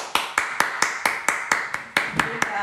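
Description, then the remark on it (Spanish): Applause in the form of steady, evenly paced hand claps, about eleven sharp, bright slaps in quick succession, fairly loud and with no talking over them, welcoming a guest on a show. “y pues nada, pues todos vamos a recibir con un fuerte aplauso”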